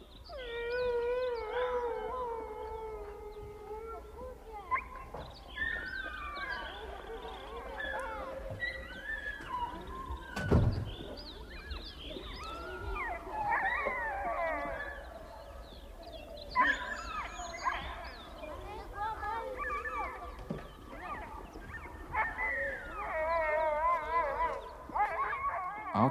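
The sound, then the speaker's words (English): A chorus of sledge dogs howls together outside, long overlapping wolf-like wails rising and falling continuously for the whole stretch, with a brief thump partway through; no one speaks. “outside, the dogs are howling, especially in the morning and towards evening they howl, howl like wolves, like imprisoned souls in infinite need, incarnated as sledge dogs.”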